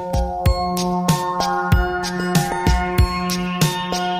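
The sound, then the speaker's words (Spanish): A mobile phone rings with a musical ringtone as a call is placed to it: a bright electronic melody over sustained tones and a steady thumping beat, fairly loud, with no voices. “Le llamo Julio el móvil.”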